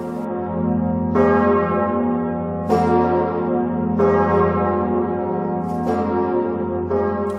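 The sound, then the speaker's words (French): The six bells of a cathedral ring together at full swing in a continuous peal, rung by men who live in the towers, with repeated bright strikes layered over a deep sustained hum. Loud, with no voices. “Une cinquantaine d'hommes, de conditions d'ailleurs très modestes, logent dans les tours et en échange sonnent, à pleine volée, les six cloches.”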